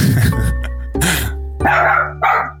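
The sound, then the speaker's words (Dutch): A dog barks four times in an even rhythm, each bark loud, with a steady low hum running underneath and no one talking. “Hij zegt ook wie zees, maar dan op zijn hond.”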